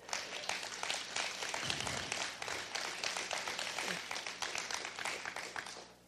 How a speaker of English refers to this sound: Let's give the Lord an applause offering.